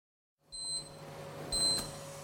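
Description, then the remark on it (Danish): A sous vide cooker beeps twice, each a high electronic double tone about a second apart, over a steady low hum and background noise, after meat and vegetables have been warmed in its water bath for about half an hour. “Så piber den igen”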